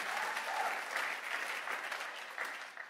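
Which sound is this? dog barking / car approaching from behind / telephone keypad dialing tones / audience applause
audience applause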